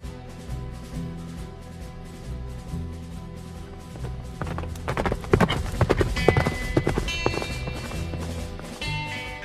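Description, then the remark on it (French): Horses' hooves clip-clop in a quick, irregular patter that grows louder midway through, layered over a low, steady rumbling background with no voices; four hungry horses and a lame mare travelling with the Kelly family. “La tâche ne s'avère pas trop difficile, considérant que les quatre membres de la famille Kelly voyage avec quatre chevaux affamés et une jument boiteuse.”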